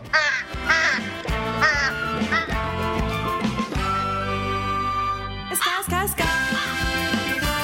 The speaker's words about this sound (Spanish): Y estamos oyendo aquí cuernitos y patos y de todo.